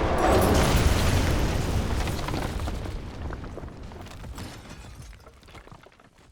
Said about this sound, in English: it also really does cause the mines to collapse. That brings a rumble and a crashing and then a roar of masonry, and one of the square towers on the corner of the castle's keep collapses.